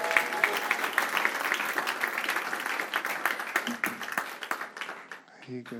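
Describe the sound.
An audience applauds and cheers for a person about to be baptized, a dense, steady wash of clapping with voices mixed in, tapering off near the end as one person starts speaking.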